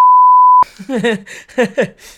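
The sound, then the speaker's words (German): A loud, steady censor bleep over a spoken surname, a single flat tone lasting about half a second, cuts off abruptly before a voice starts talking. “nur den Nachnamen wieder raus. Nachnamen wieder rauspiepsen.”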